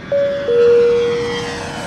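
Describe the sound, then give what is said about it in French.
Airplane engines drone steadily in a broad, constant roar during takeoff, with a clear sustained tone riding over the noise that shifts slightly lower partway through. No one speaks. “Prêt pour le décollage.”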